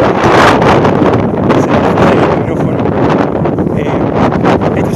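Loud, continuous wind buffeting a microphone, a dense roaring rumble with gusty surges and rustling texture throughout, no voices heard.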